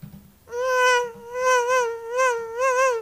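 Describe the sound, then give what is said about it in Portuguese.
A mosquito's thin, high-pitched whine begins after a short moment and hums on steadily for a few seconds, its loudness gently swelling and dipping as it hovers. “Tem um mosquitinho aí.”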